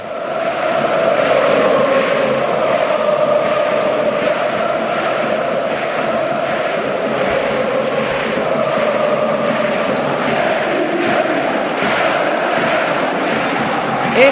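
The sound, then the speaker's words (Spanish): A record-attendance crowd at San Mamés football stadium roars and cheers continuously after Athletic's 3-0 win over Atlético de Madrid, while the players celebrate with the stands. It is a loud, dense wall of voices with rhythmic swells of chanting running throughout. “el sonido de San Mamés. Están los jugadores, creo, celebrándolo todavía con la grada.”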